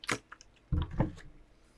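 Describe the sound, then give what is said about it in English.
A person drinks water from a bottle: a quick wet sip, then a couple of soft, low gulping swallows, with no talking. “I am drinking water um, right now.”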